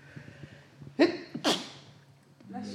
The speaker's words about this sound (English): that's my first sneeze ever on the TBC podcast